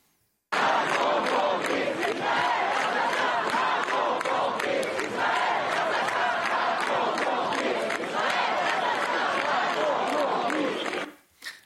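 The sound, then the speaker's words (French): A large protest crowd at Place de la République chants slogans in unison, including "Allah Akbar", "Macron assassin", "Macron complice" and "Israël assassin", many voices shouting loudly in rhythmic bursts that run continuously for about eleven seconds before cutting off abruptly. “on a entendu des Allah Akbar, Akbar scandés en hein, place de la République, euh, mais pas seulement, euh, des Macron assassins ont également, Macron complice, Israël assassin également entendu.”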